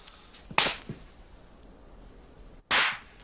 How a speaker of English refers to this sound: But then he doesn't even look like he's been slapped. I know because they pro- they faked it, but he doesn't.